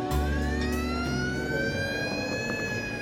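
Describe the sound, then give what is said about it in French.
An ambulance siren wails loudly as the ambulance arrives, its tone slowly rising in a long sweep over a steady low engine rumble, with no voices. “Quand l'ambulance arrive, il est déjà trop tard pour Gary McFarland”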